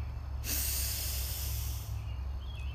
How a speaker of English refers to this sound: So we'll take a deep breath in and we'll exhale with a loud sigh after we hold for a moment at the top. So we breathe in, extending our belly,